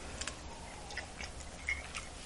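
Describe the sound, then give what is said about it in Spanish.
A quiet sip of coffee, the first of the day: a few soft wet clicks and brief slurping, swallowing noises scattered over about two seconds, with no one talking. “Así que me voy a dar este sorbito, el primero del día, rápidamente para pasar justamente a la noticia principal de este programa.”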